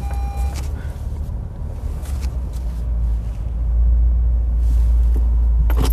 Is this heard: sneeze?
no